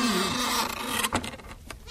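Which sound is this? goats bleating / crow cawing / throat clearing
goats bleating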